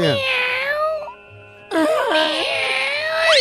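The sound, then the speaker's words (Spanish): A person's voice mimics a cat, producing two loud, drawn-out meows with wavering pitch, separated by a brief pause. “No, no, es que así le hacía el gato, güey.”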